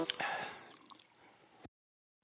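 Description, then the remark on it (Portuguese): 7 Up lemon-lime soda is poured and starts fizzing, a bright bubbling rush that quickly thins into faint, scattered crackles of popping bubbles, then silence before a sudden loud burst at the very end. “Chegou a hora de refrescar os teus dias com 7 Up e leva o teu mood com 7-Up, a combinação perfeita da lima e do limão com o um borbulhar intenso e um refrigerante incrível que te põe up.”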